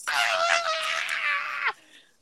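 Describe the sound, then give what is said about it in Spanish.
A voice lets out a long, sustained scream-like "ahh" for under two seconds, imitating a group yelling together, then cuts off abruptly into near silence. “Y es tan chistoso que mucha gente dice, quiero gritar, pero me da pena gritar a mí solo. ¿Y si gritamos todos juntos?”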